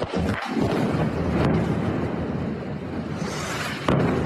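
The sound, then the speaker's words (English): Bombs explode in fighting between Israel and Gaza, heard in war news footage on TV: a loud, continuous roar of deep rumbling, with a sharp blast near the start and another toward the end, as if recorded in the open with wind buffeting the microphone. “That is the sound of Israel and Gaza going at it.”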